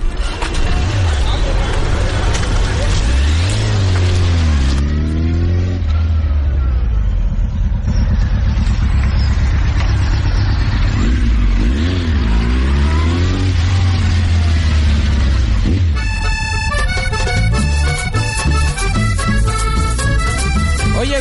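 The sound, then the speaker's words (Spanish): A motorcycle taxi engine idles with a steady rumble, then revs up and down twice in loud rising-and-falling surges, with a busy, rhythmic clatter of sound toward the end. “¡Ey, moto! Llévame al tuki ahí.”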